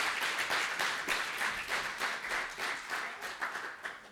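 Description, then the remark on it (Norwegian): An audience applauds steadily, a dense patter of many hands clapping at an even, moderate loudness for several seconds, with no voices standing out. “Gi henne en god klapp, dere.”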